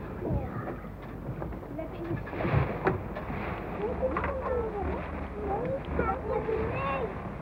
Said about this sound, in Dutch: Sjaals om, het is koud, ja, ja, er staat een behoorlijke wind. Er gaat veel water over. Dus pas jullie hem op dat je niet nat wordt.